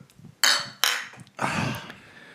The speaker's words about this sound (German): Können wir noch anstoßen eigentlich, oder?